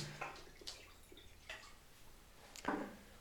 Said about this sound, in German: Ich habe da gerade auch schon jemanden gehört, ich habe da gerade so diese Geräusche gehört, wenn jemand gerade was in ein Glas einschenkt. Aber er hat sich ein Glas Wasser geholt.